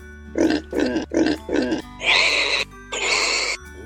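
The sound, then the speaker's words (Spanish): A pig grunts four times in quick succession, then lets out two longer, higher-pitched squealing oinks, loud with no talking. “Hola, señor cerdo.”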